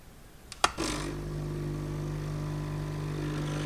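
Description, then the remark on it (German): A capsule coffee machine in a kitchen brews after capsules are put in, with no cup underneath so the coffee runs out. There are a couple of sharp clicks, then a steady, loud buzzing pump hum with a low droning tone that holds evenly to the end, with no voices. “Oh, und wie geht denn diese Kaffeemaschine?”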